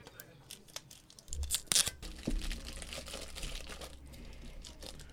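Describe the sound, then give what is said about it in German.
Crinkling and tearing of paper as a small piece of malt whisky fudge, individually wrapped in paper like a candy, is unwrapped, with a loud burst of rustling in the middle followed by softer handling noises. “Genau, die sind hier so einzeln eingepackt in so Papier wie Bonbons.”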